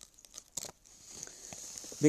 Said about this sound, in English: Forgive, forgive the crackling of paper because I've written some things down.